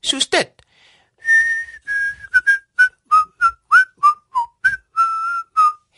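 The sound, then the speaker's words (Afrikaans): A short spoken phrase, then someone whistles by blowing air out, a string of about a dozen short notes, some held longer and some sliding in pitch, clear and fairly loud. “Jy sonderstel om die klank te maak wanneer jy jou lug uitblaas”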